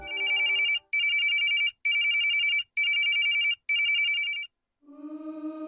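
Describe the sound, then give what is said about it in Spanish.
A telephone bell rings insistently in five rapid, evenly spaced bursts, loud, followed by a lower droning tone as the ringing stops. “O clientes del hostal habían sido testigos de extraños fenómenos como teléfonos que sonaban insistentemente incluso estando desconectados de la red.”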